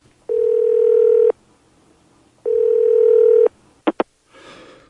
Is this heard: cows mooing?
no